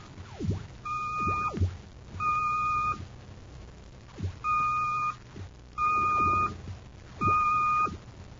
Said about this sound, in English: The code signal. It's been picked up repeatedly from Planet X. Planet X? Notice the pattern. It's a constant repetition of three dashes. A homing signal for Baccarati's scout ship.